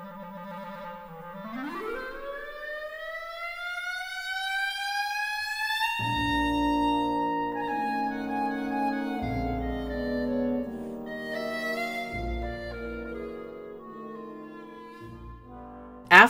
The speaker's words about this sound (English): the clarinet plays a glissando, what sounds like a continuous note that varies over nearly two octaves of pitch. If you were to analyze a good recording of a good clarinetist, you would be hard pressed to find discrete individual notes.